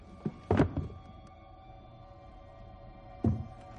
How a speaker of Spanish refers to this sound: Apoya las manos en la silla. La aparta.